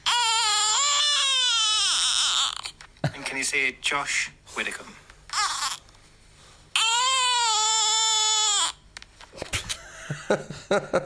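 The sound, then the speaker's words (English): A baby girl lets out two long, loud, creaky squeals with wavering pitch, like a door hinge groaning, with an adult speaking briefly between them. “it's like she's trying. She sounded like a spooky door, didn't she?”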